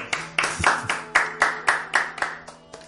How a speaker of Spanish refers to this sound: Bueno, yo creo que esto merece un aplauso.